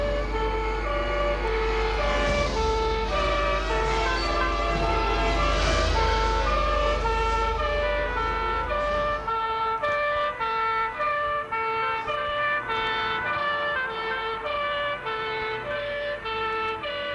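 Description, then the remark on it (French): An ambulance siren wails continuously with a repeating rising-and-falling tone, loud, over the low rumble of a moving vehicle that fades after several seconds; the ambulance is following a gendarmerie car. “ils sont dans la voiture de la gendarmerie. Il y a une ambulance qui les suit.”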